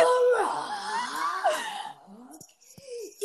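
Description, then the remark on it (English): A scared dog whimpers and whines in a few short, wavering high-pitched bursts, with soft breathy sounds between them and no clear talking. “he's sorry, just like, my dog just got scared.”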